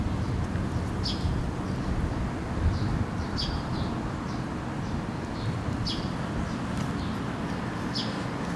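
Riverside park ambience outdoors on a cool, pleasant day: a steady low rumble of wind and background activity, with small birds chirping briefly every second or so. Nobody speaks.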